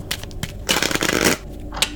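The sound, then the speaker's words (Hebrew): Playing cards are cut and shuffled: a few crisp taps, then a dense, papery riffle lasting about half a second, followed by light flicks as the deck settles. No one speaks. “תוכל לחתוך, אדוני?”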